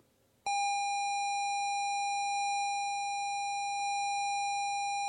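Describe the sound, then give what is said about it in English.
A Sinclair ZX Spectrum tape loading tone: after a brief moment of quiet, a loud, buzzy square-wave pitch starts abruptly and holds steady and unchanging to the end, with no voices. “This is a Sinclair Spectrum loading”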